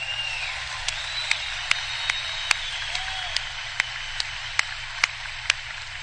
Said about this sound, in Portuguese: Esse cara está fazendo um bom trabalho para mim traduzindo. Vamos dar uma salva de palmas para ele.